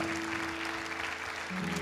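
A church audience applauds together after a prayer, giving applause of thanks and glory to God, in a steady, dense wash of clapping that holds at an even level throughout, with a low sustained hum running underneath.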